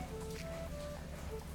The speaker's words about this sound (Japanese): 雨季のジョクジャカルタ今日もお昼頃から結構な雨が降っております気温は27度蒸し暑いのは変わりませんね今日の収録にも雨音が入っているかもしれません